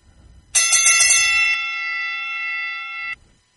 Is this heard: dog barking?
no